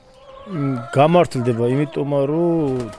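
Turkeys on a family cattle farm gobble loudly, a run of wavering, throaty calls that follow one another with barely a pause over about three seconds.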